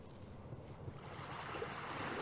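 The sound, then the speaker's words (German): Ocean surf washes steadily onto a beach in the morning, a broad continuous roar that swells slightly louder toward the end, with some wind noise mixed in and no voices. “Heilsame Verbindung mit deinem inneren Kind direkt am Meer!”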